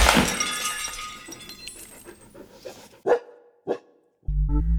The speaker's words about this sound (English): A professor crashing through the roof of a dangerous laboratory? Surely that has never happened before in history.